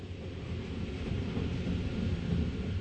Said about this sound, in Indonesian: Ia baru terbangun ketika kereta api sudah sampai di dekat Berlin di kota Potsdam.